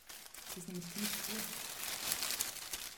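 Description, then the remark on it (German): Continuous rustling and crinkling of stiff paper as pages of historical photo albums of portrait photography are leafed through, with a faint low murmur briefly underneath near the start. “Und nun wir blättern in historischen Alben”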